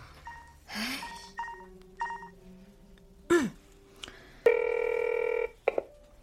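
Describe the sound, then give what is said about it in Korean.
A mobile phone going off with incoming text messages: a string of short electronic beeps and chirps, followed by one loud, steady, buzzy tone lasting about a second, then a final brief blip. No one speaks. “아이고 진짜 누고 계속 핸드폰 울리싸고 아빠다 아까부터 미안하단 문자만 벌써 13통째다 받아라”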